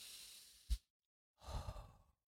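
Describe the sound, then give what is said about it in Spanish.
A long, airy deep inhale followed by a brief pause, then a slow, breathy exhale trailing off, fairly quiet with no talking. “Siempre he recomendado que hagan respiración profunda.”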